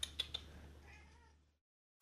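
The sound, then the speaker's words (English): A cat, Kitty, lets out a single soft, drawn-out meow that fades away, preceded by a few quick taps or clicks. No one speaks, and it falls silent afterward. “Kitty's got a topic for us. Come here.”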